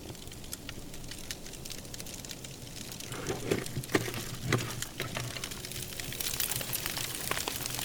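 A fire burning in a litter bin outdoors in cold weather crackles steadily, with irregular sharp pops and snaps over a soft, continuous rushing hiss and a low rumble, fairly quiet, with no voices.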